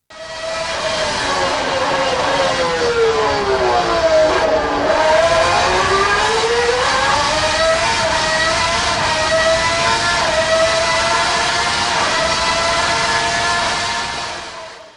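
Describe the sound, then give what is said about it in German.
A Ferrari 641 Formula 1 engine screams loudly and steadily for about fifteen seconds, its high, buzzing pitch dipping once as it backs off and then climbing again through the gears. “Also ich finde ja, dass der Ferrari 641 wie so eine Kekssäge klingt.”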